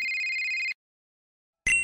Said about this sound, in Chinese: 就在他们感到苦恼的时候，佛奇的手机响了，是丁丁博士打来的。